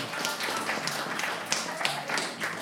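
A short burst of applause for someone auditioning for La dulce vida: many hands clapping in a dense, steady patter of crisp slaps, with a few sharper claps standing out, holding an even level throughout.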